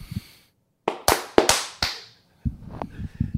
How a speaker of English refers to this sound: And we're back, and that clap again was completely fucking off cue. Ugh.